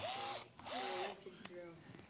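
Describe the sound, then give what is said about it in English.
A cordless power drill fitted with a Phillips screwdriver tip whirs in two short bursts, its motor pitch rising as it spins up and dropping as it winds down, followed by a fainter, briefer hum. Fairly loud. “It is a drill.”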